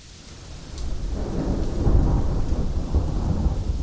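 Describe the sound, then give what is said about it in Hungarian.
A thunderstorm with heavy rain pouring down steadily, a deep rumble of thunder swelling in the middle and lingering low beneath the constant hiss of rainfall. “Esett és zuhogott, és megint esett, és megint zuhogott.”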